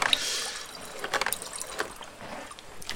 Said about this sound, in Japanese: この場所で食洗機が回ってるのでかなりうるさいかもしれません